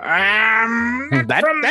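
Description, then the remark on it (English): A person voices a long, drawn-out crow squawk, a single strained and nasal call with a slowly rising pitch, followed by a few quick spoken words. “Uh, I'm gonna say uh, squawk.”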